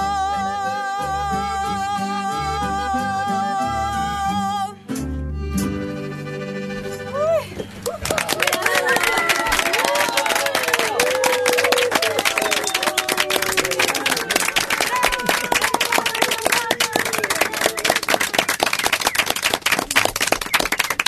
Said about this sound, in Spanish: Una ovación llena de cariño